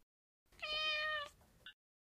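A cat lets out one clear, drawn-out meow, followed by a brief, softer chirp-like call just after. No voices are heard.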